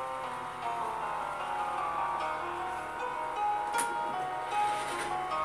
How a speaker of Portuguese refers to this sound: Esse barulho que estou vendo de fundo é um caminhão que tá chegando aqui no meio da rua.